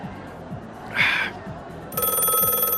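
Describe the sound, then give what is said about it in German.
A telephone starts ringing partway through, a steady electronic ringtone that carries on to the end, clear over a low background murmur, after a brief rustling burst. “Oh, Telefon.”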